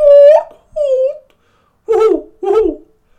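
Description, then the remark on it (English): A person imitates an owl's hoot with four loud hooting calls. The first two are higher and smoother, the last two lower and rougher, giving a somewhat monkey-like quality. “More of a monkey, really, wasn't it?”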